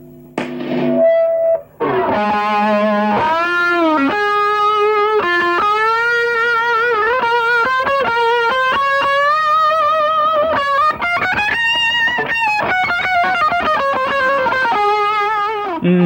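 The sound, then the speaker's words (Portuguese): A screaming electric guitar solo with a swirling phasing effect, sustained bent notes gliding up and down over a steady loud backing, no voices present. “There was actually an extra bit of phasing used on this, I think, to make it scream a little more.”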